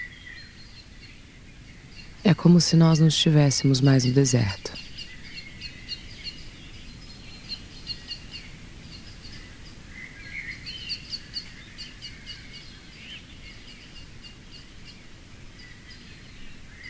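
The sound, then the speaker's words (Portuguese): Soft birdsong chirps faintly in a garden at the entrance of a library, in mild weather, over a quiet outdoor hush. It continues throughout, with a short burst of a man speaking near the start. “A temperatura agora é amena e alguns pássaros cantam suavemente.”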